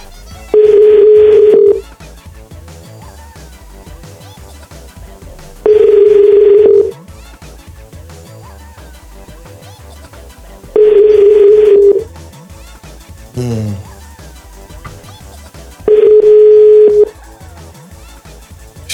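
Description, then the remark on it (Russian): A telephone ringback tone repeats four times, each steady buzz lasting about a second with roughly four-second gaps, heard clearly over a faint background of music. “я уж тебе звоню, потому что нет ничего прекраснее в этом мире, чем женские глаза.”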